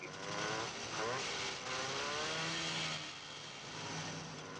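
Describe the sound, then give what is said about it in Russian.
A motorcyclist's engine revs steadily in street traffic at a traffic light, its pitch climbing and falling in a few surges over a constant, loud roar, with no pauses. “Рычит мотоциклист.”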